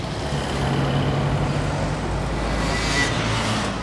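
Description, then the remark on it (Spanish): Steady, dense road traffic with motorbikes in Japan of the 1970s and 1980s, engines droning and rumbling together, a continuous wash of vehicle noise that swells slightly near the end; no voices. “motos, fábricas, tráfico, ruido, progreso, contaminación.”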